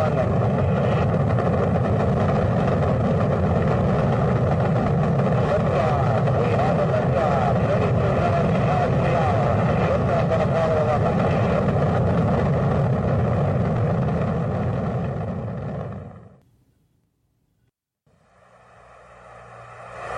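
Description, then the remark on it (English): A loud, continuous rocket-engine roar at launch after the countdown and ignition sequence, rumbling steadily for about fifteen seconds, then cutting away sharply into near silence before a faint sound creeps back in. “Ignition sequence starts. 6, 5, 4, 2, 1, 0. All engines”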